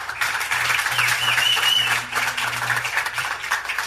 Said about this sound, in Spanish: Un aplauso a nuestro Dios.